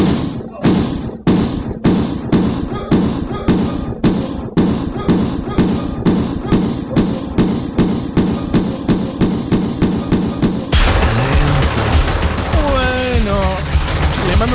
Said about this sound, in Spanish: eso esto de una peli de George Lucas que le están pegando a alguien. Así arranca el disco, ¿ok?